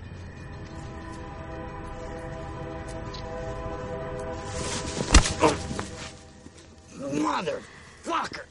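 A train whistle sounds a long, steady chord for several seconds, then fades under a sudden heavy thud as the narrator lands a punch on Tyler, followed by pained grunts and vocal exclaiming.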